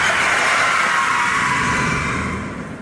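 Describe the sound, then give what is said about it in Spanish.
A large luxury car brakes hard with a loud, sustained screech of tyres, holding steady for a couple of seconds before fading slightly at the end. “El coche frenó con un gran chirrido de neumáticos.”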